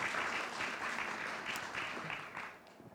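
Steady audience applause at a book presentation, for the book's graphic designer: a dense crackle of many hands clapping at once, holding fairly even before thinning out slightly toward the end. No one speaks over it.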